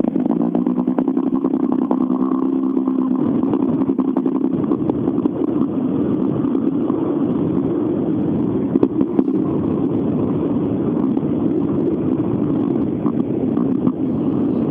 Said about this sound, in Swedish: Ja, det är härligt att få höra de här bilarna hela vägen in i studion. Många bra förare som sagt och eh, häftiga bilar.